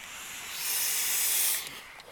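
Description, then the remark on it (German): A soft, steady hiss of an e-cigarette held in the hand as it is drawn on, swelling for about a second and then tapering off, with no talking. “Ich habe eine E-Zigarette in meiner Hand ich und auch. immer wenn ich dran ziehe, dann macht es eben genau dieses Geräusch, was ihr wahrscheinlich hört.”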